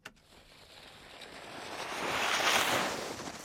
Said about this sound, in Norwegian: Her har vi lyd av aking.